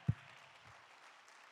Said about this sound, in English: If you believe that, clap your hands this morning.